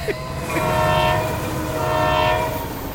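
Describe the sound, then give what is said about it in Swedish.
An X2000 high-speed train rushes past, its steady rumble carrying two long, sustained horn blasts one after the other. No voices. “Ljudet ja. av X2000 som du bara ser sista vagnen av nu.”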